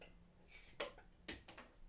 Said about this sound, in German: schreitet zum, schreitet zum Kühlschrank, reißt diesen auf und klimpert komplett mit den Flaschen.